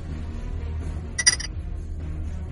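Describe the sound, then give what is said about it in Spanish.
A single short, high-pitched cricket chirp made of a few quick pulses, fairly clear over a low steady hum, with no one talking. “Lo había escuchado, ah, lo había escuchado. Ese es un, grillo”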